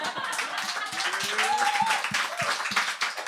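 An audience applauds, a dense, steady wash of many hands clapping at once, with a few faint voices rising through the noise of the crowd.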